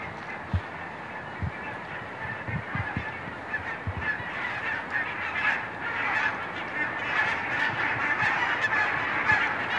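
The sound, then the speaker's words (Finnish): A flock of geese honks continuously in flight over a reed-fringed shore at Villailviikki during an autumn bird-migration evening, many overlapping calls forming a steady, carrying chorus that grows slightly louder, with a few low thumps early on and no talking. “Hienot äänet sieltä tänne asti hieno. kuuluu. hieno, hieno parvi selvästi.”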